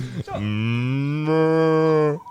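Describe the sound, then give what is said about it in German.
A single long, loud moo from a cow named Gertrud, a low droning bellow held for about two seconds that rises slightly partway through before cutting off. “ich hab die Kuh gemeint.”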